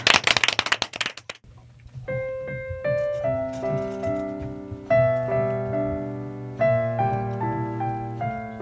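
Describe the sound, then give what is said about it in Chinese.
A brief burst of quick, overlapping hand claps from a group celebrating Christmas, fading after about a second, followed by a melodic instrumental passage of sustained tones over a low steady bass. “们一起鼓掌一下”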